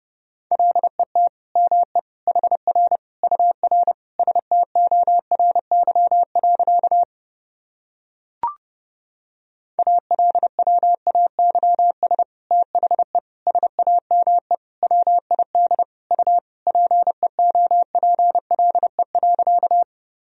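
Rapid Morse code at 30 words per minute, keying sentences from the top 300 words and abbreviations as a steady mid-pitched beep, fast dots and dashes running in two long stretches split by a brief pause with a single click. No voices.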